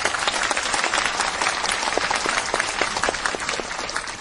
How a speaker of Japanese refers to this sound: はいありがとうございます皆さんもう一度大きな拍手をお願いいたします